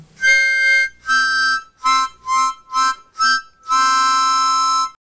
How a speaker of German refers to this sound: Zu dem Geräusch muss ich eigentlich nichts sagen. Das Erstaunliche dabei war nur, dass die Mundharmonika, die ich genommen habe, ungefähr so groß ist wie ein schmales Radiergummi.